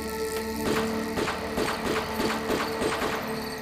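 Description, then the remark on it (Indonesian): A rapid string of sharp, evenly spaced gunshots cracks out about three times a second over a steady mechanical hum, moderately loud, with no voices, in the morning in Kebayoran Baru, Jakarta. “Hah, suara tembakan.”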